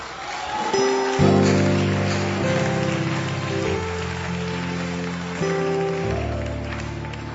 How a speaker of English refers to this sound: He's even given us the rain. The rain of the Spirit.